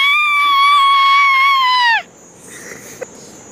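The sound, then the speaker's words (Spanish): A girl's loud, sustained high-pitched scream holds steady for about two seconds, then drops off abruptly, leaving only faint background noise and a small click. “Grita, grita, grita.”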